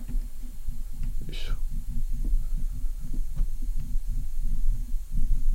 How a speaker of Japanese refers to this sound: 時々こう、あれですね、サイフォンの音が来てますよね。もうちょっと近づけられるかな。